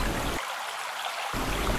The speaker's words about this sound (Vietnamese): Cô ta đang tắm dưới sông. Chính tiếng khỏa nước đã khiến tôi chú ý.